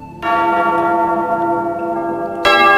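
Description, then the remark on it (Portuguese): A church bell rung by the sacristan sounds loudly, its long resonant tone sustaining, then a second strike lands near the end with a bright fresh onset. “mas toca o sino, sacristão.”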